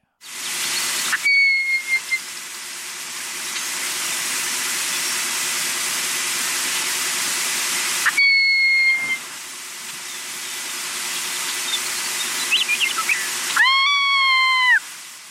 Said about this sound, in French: Hiverne dans le sud-ouest des États-Unis, et le nord du Mexique. Niche dans la prairie, à l'est jusqu'au centime méridien, et s'égare parfois jusqu'au Mississippi. Et comme à l'habitude, voici le chant et le cri de l'oiseau aujourd'hui.